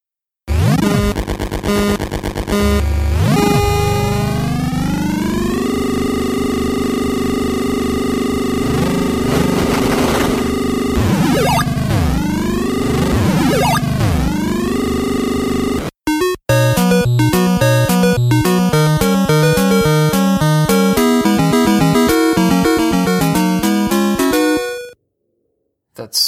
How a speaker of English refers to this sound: No, no, no, that is Excitebike. Yes, it is.